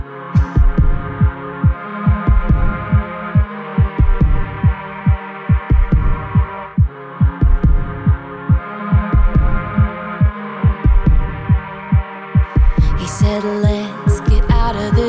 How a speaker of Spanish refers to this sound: Vamos a escuchar estas dos canciones y a la vuelta nos despedimos, no se vayan.